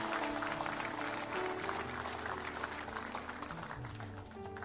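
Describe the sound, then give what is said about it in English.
An audience gives the Lord a clap offering, clapping steadily for about five seconds, a dense, loud patter of many hands, with sustained musical notes playing softly underneath. “Would you give the Lord a great big clap offering?”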